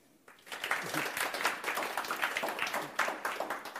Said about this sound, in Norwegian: Så en varm applaus til dagens hovedgjest